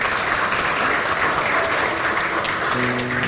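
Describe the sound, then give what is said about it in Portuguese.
A church audience applauds God for the lives of business owners, a dense, steady wash of clapping filling the space for a few seconds, with a faint tone or voice emerging near the end. “Já vamos aplaudir a Deus pela vida dos empresários.”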